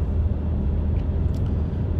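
A deep, steady engine rumble from a large Dodge Ram pickup truck driving behind the speaker, continuous for the whole stretch, with a dense low-end drone and no talking over it.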